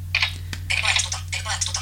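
Several short bursts of clicky, clattering taps from keys being pressed on an HTC phone's keyboard, fairly clear, with a sharp single click near the middle and a low steady hum underneath.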